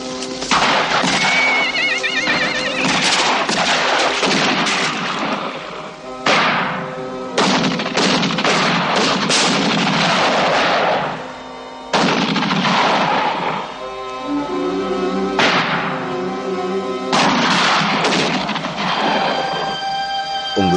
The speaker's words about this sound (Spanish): Los caballos se asustan al escuchar unos disparos.